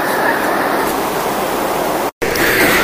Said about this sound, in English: I hope you guys can hear this because I am on a plane and it's loud.